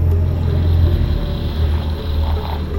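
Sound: helicopter flying overhead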